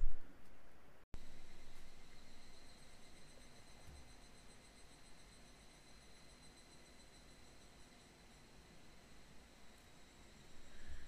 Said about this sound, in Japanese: 今これあの外のあのセミの鳴き声聞こえますかねあの、まあね、僕はまあ前からのセミの鳴き声がするとあ夏が来たなっていうふうに思うんですけど